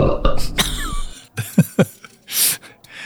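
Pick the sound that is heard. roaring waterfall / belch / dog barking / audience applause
belch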